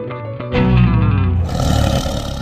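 A deep, powerful tiger roar swells up after a brief lead-in, rumbling loudly for about two seconds with a raspy, growling texture and no talking.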